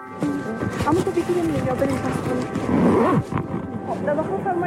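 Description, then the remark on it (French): Busy ambience of several voices talking and calling out, with a steady hum and clatter underneath, as people order ice cream at the best-known ice cream parlour in Kabul, Afghanistan, at 4:30 pm. “c'est celui d'une commande de glace.”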